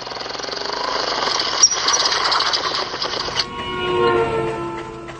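A tractor engine runs, a loud, steady, rhythmic mechanical chugging that changes tone partway through, with a couple of brief clanks over the drone.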